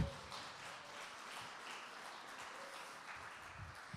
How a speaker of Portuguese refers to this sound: Então aplauda Jesus bem alto, gente.